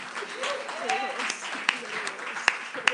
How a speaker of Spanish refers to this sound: Y si tú crees que el Señor está aquí en medio nuestro, dale un fuerte aplauso al Señor en esta mañana.